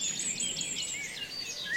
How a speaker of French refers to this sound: Un oiseau qui chante à la cime de l'arbre